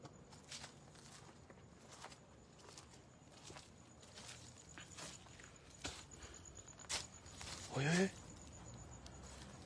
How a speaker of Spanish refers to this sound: Caminó algo, caminó algo, caminó algo.